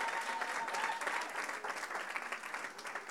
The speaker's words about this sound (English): Clap it up for the panel. Amen. Can we thank God for the panelists and for our, our moderator? Amen.